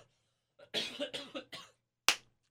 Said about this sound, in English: I should have pressed the cough button.